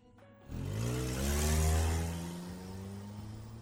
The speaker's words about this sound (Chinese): 张楠目送一辆切诺基驶出小区